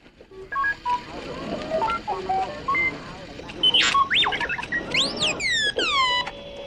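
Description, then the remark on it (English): The droid R2-D2 from Star Wars chatters in quick electronic beeps and warbling whistles, rising and falling pitch sweeps tumbling over each other, loud, with no voices. “when R two D two is shot by the Sand People, you you're like, oh no, not R two, and that's just beeps”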